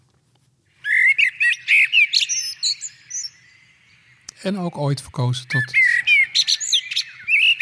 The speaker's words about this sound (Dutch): Ja, als we het over ultieme zomergeluiden hebben, terrasjes en een biertje, dan eh, denk ik altijd ook aan de merel. Een van de mooiste geluiden die je in de zomer kan horen.